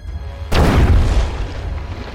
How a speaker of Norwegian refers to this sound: I samme sekund kjenner de at noe stort og kraftig treffer undersiden på skipet.